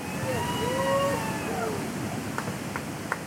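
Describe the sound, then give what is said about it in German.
A steady, loud roar of rushing water from the standing wave on the Eisbach just past a bridge surges without pause as surfers jump into the white foam. Faint voices drift over it, and a few sharp splashy clicks come near the end. “Nacheinander springen sie in den weißen Schaum der Welle, die sich kurz hinter der Brücke auf dem Eisbach aufbäumt.”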